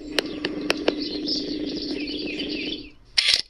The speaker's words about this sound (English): It's now morning at the same home in the Castlereagh neighborhood of North St. Louis County. Beyond the birds chirping, you can hear the same hum in the background.